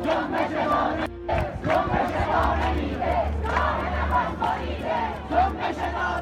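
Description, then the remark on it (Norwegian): A large crowd of protesters in Iran chants slogans against the authorities, a loud, dense mass of raised voices with a rough rhythmic pulse that carries steadily through the whole stretch without pause. “Folk eh, eh, roper jo da slagord mot myndighetene.”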